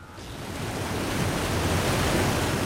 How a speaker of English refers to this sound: Niagara Falls is the most powerful waterfall in North America. Every minute, 168,000 cubic meters of water flow through it.